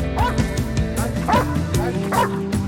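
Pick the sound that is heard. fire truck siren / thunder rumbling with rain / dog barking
dog barking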